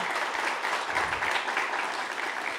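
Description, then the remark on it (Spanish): Steady audience applause welcoming journalist Carmen Aristegui to a talk on journalism, a dense continuous patter of many hands clapping at a fairly even loudness throughout, with no voices standing out. “Gracias por aceptar, Carmen, y este aplauso que te, que te, recibe, pues para hablar de estos distintos temas que hoy tenemos en la mesa y que tienen que ver con el periodismo.”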